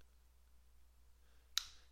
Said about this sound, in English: That was my, me snapping my fingers.